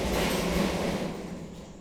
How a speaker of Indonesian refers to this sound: aduh berisik ya untuk Bentar, kita biarin dulu motor itu lewat ya. Ya gimana ya? kita ngerekord bukan di studio cuy.